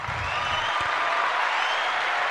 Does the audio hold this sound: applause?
yes